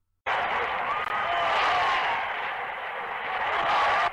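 A large bullring crowd roars with sustained applause and cheering, a dense, loud wall of clapping and shouts that starts abruptly and holds steady for about four seconds, as the packed plaza applauds a bullfighter performing.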